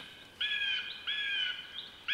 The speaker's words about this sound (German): Und da ist wieder der andere Vogel, der miaut wie ein Büssi. Wie ein Bussard. Ich glaube, die zwei schimpfen miteinander.